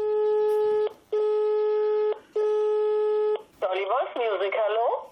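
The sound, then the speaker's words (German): A telephone rings three times on the line, each a steady, buzzy tone about a second long with brief gaps between, then a voice answers and starts talking. A presenter from the radio studio Studio Nierswelle is calling the number of a singer's wife. “wählte als erstes die Nummer von”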